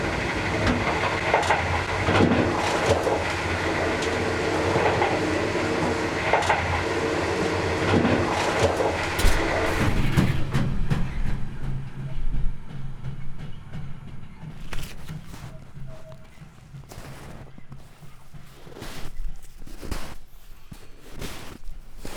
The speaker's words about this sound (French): Welcome on board is my train number 94, bound for Umeå, Luleå